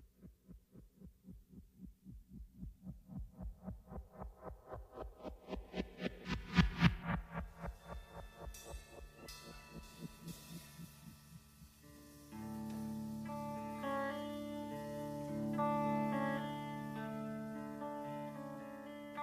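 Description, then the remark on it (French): Synthesized helicopter blades on a soundtrack whir in steady rhythmic thumps that quicken and swell, then sustained musical tones from a song rise up and blend with the pulsing chop. “les pales d'hélicoptère entrent et sortent de, de, …, la chanson des …”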